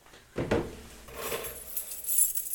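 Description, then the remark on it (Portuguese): A bunch of keys jangles as they are handed over, starting with a sharp metallic clink and continuing as a bright, rattling shimmer for a couple of seconds, with no voices. “Passem então as chaves,”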